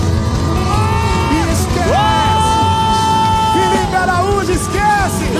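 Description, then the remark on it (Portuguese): A large live crowd in Belo Horizonte yells and cheers continuously, with several voices rising into long, drawn-out whoops over a dense, steady roar of noise. “faz barulho aí, gente!”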